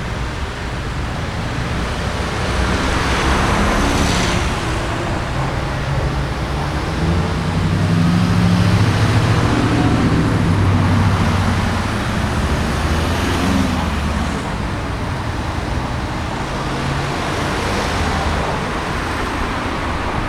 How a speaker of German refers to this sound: Es waren ganz, ganz viele Autos.